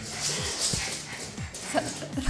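A dog gives several short, high yips and whimpers in quick succession as someone plays with it, with a faint murmur of voices in the background.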